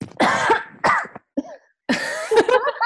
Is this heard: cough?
yes